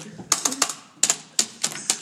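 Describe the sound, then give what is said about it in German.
Crisp computer keyboard typing used to stand in for the sound of eating food: sharp plastic key clicks landing in quick irregular clusters of two or three, with short pauses between bursts, fairly loud against a quiet background. “Mein schönes Essen, das wie eine Tastatur ähnelt, weil wir einfach improvisieren müssen.”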